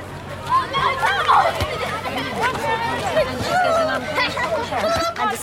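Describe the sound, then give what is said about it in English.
Children arriving at Skullvrera Primary School and playing in the school yard before the bell, with parents chatting outside the gate: a busy outdoor crowd of young voices chattering and calling out at once, a steady lively babble with occasional higher shouts, continuous throughout. “We hear the children arriving to school and playing in the school yard before the bell sounds, while parents chat outside the gate.”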